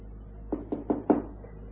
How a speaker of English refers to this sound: I went back down here and I tapped on the door.